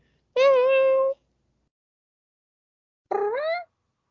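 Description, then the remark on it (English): Two clear meows from kittens in a box, separated by a pause of a couple of seconds: the first a longer, steady high mew, the second shorter with a rising, wavering pitch. “Yeah, cute little kittens.”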